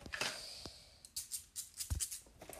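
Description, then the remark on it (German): Quiet crisp snipping and paper rustling as a gift is wrapped, with a few scattered sounds early on, then a quick series of about six scissor cuts through turquoise wrapping paper. No one speaks. “ja, ich bin nicht so professionell, aber Schere”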